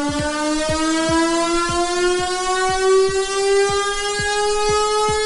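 A loud village siren near Mumbai, India, wails continuously at seven in the evening to start a nightly digital lockdown. Its tone slowly rises in pitch over a steady rhythmic clacking, with no voices.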